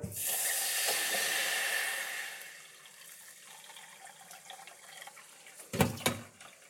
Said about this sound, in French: Je vais mettre tout de suite de l'eau froide dans ma casserole.